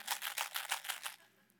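A small plastic box of Tic Tac mints is picked up from a kitchen counter and shaken in a quick, even rhythm, about seven crisp rattles in a row before stopping, fairly quiet with no talking.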